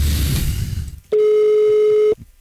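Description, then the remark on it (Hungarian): A single steady telephone ringing tone, about a second long and fairly loud, sounds on an outgoing call to a listener after a brief stretch of muffled background noise. “Hívjuk gyorsan a hallgatóját, aztán elköszönünk.”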